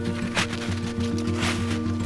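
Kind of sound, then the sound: nature, snow crunching under footsteps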